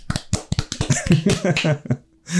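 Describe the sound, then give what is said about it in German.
A burst of sharp hand claps, quick and uneven and fairly loud, as people test how loud they can clap before the audio interface's level LEDs object, with voices and laughter mixed in during the middle before it trails off to a brief hush. “Wie laut können wir klatschen, bevor das”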